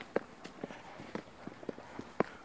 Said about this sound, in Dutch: En daar lopen we nu dus op een stenen trap naar beneden.